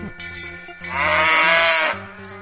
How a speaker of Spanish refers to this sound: Cuando todo el mundo pensaba que ya no iba a haber San Fermín toma, es en Tolosa. 11, vacas recorriendo las calles del barrio.